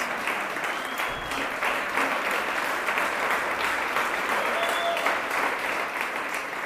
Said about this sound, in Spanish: Dense un aplauso, varones. Son invencibles.